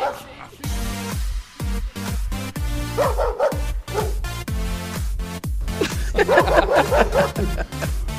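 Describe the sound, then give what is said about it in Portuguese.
A dog barks again and again in quick bursts, set against a loud, steady thumping beat that runs throughout, so the barks come across like part of a rhythmic track. “Palmas para o latido, por favor.”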